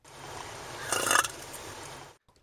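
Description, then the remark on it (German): A cow lets out a single soft, breathy burp, a brief gusty release of about half a second over a steady low background rumble, fairly quiet and unremarkable. “So klingt eine rülpsende Kuh.”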